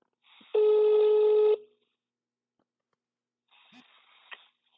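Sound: telephone dialing tones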